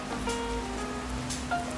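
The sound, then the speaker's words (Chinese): Steady rainfall with scattered drips and patters over a soft, continuous hiss, plus a low hum underneath; no one speaks. “所以偶尔可以坐在这边，看着滴滴答答的雨滴，聊聊天，或者是安静一下，觉得好像都很不错。”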